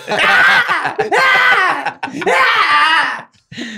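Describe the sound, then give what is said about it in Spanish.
A wild cat, a cougar or bobcat, lets out loud, harsh screams, three long wailing cries in close succession that rise and fall in pitch, with a fourth starting just as it ends. “Y lo que estamos viendo es el grito de una osa real para los que son de allá o un o gato montés para los que somos del el resto del país.”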